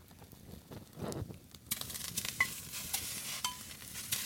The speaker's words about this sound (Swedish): Det droppar lite från vattenkannan här på spisen.